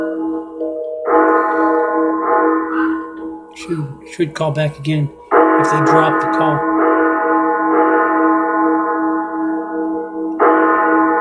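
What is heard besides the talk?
bells ringing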